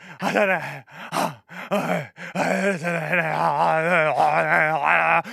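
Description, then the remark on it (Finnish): A voice imitates sleep-apnea noises, mimicking how sleep-recording software captured the speaker's sleep: a few short, strained groans separated by brief pauses, then a long, wavering moan held for several seconds, fairly loud with no words. “No, mä otin sen se softa, mikä äänittää mun unta, niin se kuulostaa, kuulostaa tällaiselta.”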